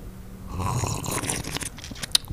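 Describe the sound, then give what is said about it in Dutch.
An airy slurp of tea, made as an ASMR demonstration, lasts a couple of seconds: a breathy sucking noise with a small wet click near the end, with no talking. “Dus als wij bijvoorbeeld een, een slurpje thee eh, drinken, zo, zo.”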